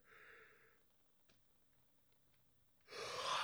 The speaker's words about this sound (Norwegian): For jeg er veldig, veldig svak mot det med gjesping. At hvis noen begynner å Eller noe sånt, så Ja, ikke sant. Jeg begynner å gjøre det sjøl.